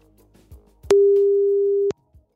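A single steady telephone tone sounds for about a second as a radio presenter places a call about a job vacancy, a loud, pure mid-pitched beep starting and stopping abruptly between faint clicks and handling noise.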